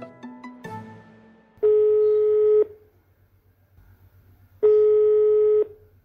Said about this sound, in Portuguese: Catei o telefone e liguei para Rita.